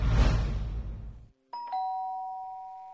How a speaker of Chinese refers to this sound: 喵警官摁了门铃，没人答应。